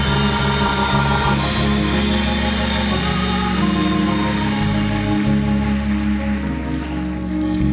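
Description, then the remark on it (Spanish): A crowd claps for Jesus in a dense, continuous wash of applause over sustained low musical tones, staying loud for the whole stretch without any talking. “Dios a aplaudir, aplauda a Jesús.”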